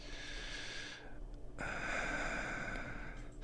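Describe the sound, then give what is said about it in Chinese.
A voice actor imitates heavy male breathing, the suggestive kind that leaves room for the imagination: a long airy breath, a brief pause, then a louder, rougher breath that lasts about two seconds. No one speaks. “你配音员可以示范一个，就是今天厂商说，请给我一个很有让我很有遐想空间的一个男性的喘息。”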